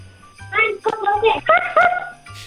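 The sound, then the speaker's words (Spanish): A small child's voice makes a few short, high, yappy sounds in a quick series, imitating a puppy's bark, fairly loud. “¿Cómo es el ruido de un perrito?”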